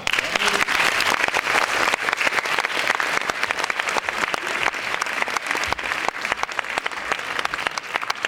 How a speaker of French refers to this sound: Alors, entre vous deux, alors comme d'habitude, si vous applaudissez là, ils en sourire, regardez, faites-le.